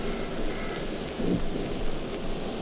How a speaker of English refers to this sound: Just overhead now, the burst of the anti-aircraft fire. Still, the nearby guns are not working.